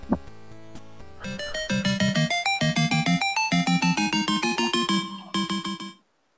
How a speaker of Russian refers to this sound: Давайте нам отбивку